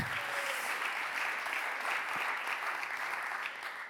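An audience claps steadily, a dense wash of many hands applauding at an even, sustained level for several seconds with no talking over it.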